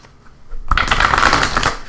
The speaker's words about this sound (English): Oops, I left out that card, so I'll put that back in we'll shuffle again.